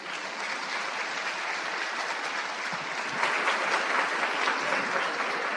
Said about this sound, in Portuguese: Então queria pedir uma belíssima salva de palmas para aparecer na gravação. Vamos bater uma palma?